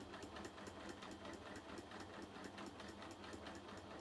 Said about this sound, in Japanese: 今ね何してるかっていうとあのちょっと端ミシンをねジグザグかけておるんですよ